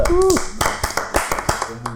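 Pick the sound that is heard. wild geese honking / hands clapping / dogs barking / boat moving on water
hands clapping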